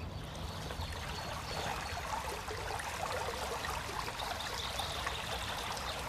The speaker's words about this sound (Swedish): Inte så långt ifrån vårt hus finns en bäck.